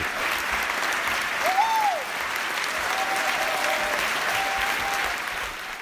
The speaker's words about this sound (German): Das Publikum war begeistert und dankte es den beiden mit lang anhaltendem Applaus und das klang so.